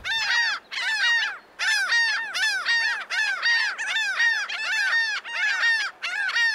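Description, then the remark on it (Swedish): A laughing gull, a North American gull species, gives its long laughing call, a rapid series of loud, nasal, downslurred "ha-ha" notes in bursts, clear with no voices. “Eh, laughing gull då, eh, finns ju en mås som heter i, i Nordamerika, eh, som heter sotvingad mås på svenska då, men, men den, eh, den har ju ett mer skrattande läte.”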